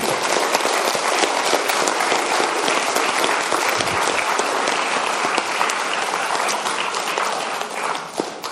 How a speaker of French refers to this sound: Super, merci beaucoup. Je pense qu'on peut l'applaudir beaucoup pour son excellent exposé.